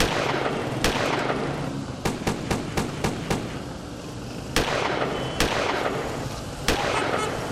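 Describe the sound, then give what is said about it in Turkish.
A rapid volley of sharp gunshots cracks out in an irregular burst, followed by several more scattered shots over a constant background murmur, loud. The shots were fired in an attack on the Mardin Narlıköy Association in Küçükçekmece during a meeting of AK Parti mayoral candidate Aziz Yenay with residents. “Buluşma sırasında silah sesleri duyuldu.”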